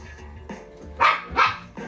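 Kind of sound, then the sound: animal, dog barking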